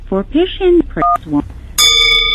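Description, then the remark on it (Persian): A brief phone keypad DTMF beep cuts in after a few seconds of an automated phone menu voice asking callers to press one for Persian or two for English, followed by a louder, steady electronic tone that holds to the end, clear. “لطفا برای انتخاب زبان فارسی کلید یک و انتخاب زبان انگلیسی کلید دو را انتخاب نمایید.”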